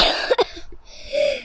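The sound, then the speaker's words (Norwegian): A sharp cough burst followed by a couple of softer vocal catches, then a breathy, sustained exhale-like sound fading out; no speech. “Prosit!”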